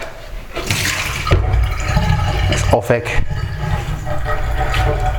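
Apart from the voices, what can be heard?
water being poured out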